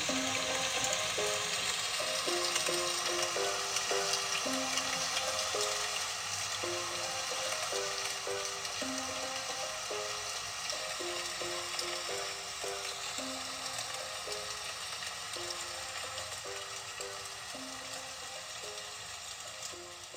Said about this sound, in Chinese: 啊，琪琪，你看，你看，下雨了耶！